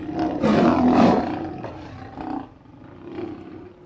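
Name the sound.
lion roaring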